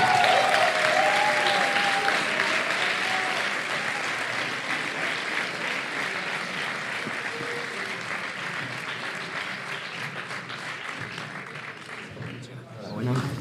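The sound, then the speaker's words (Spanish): Sustained audience applause, a dense wash of many hands clapping steadily for over ten seconds, gradually thinning, with faint cheers and voices mixed in before it tapers off. “Un aplauso.”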